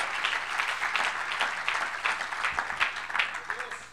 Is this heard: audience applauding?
yes